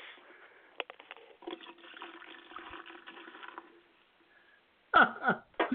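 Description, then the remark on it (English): A drink is poured down a sink drain: a steady splashing stream for several seconds that tapers off, then a few louder gurgling bursts as it drains away. “Down oh. the drain.”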